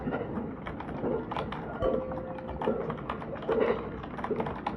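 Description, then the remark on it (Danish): Rapid, uneven clicking of fingers typing on a computer keyboard inside a moving train, layered over a busy background hum with people talking and a brief bell ringing in the middle. “Der er nogen, der skriver på øh, computer.”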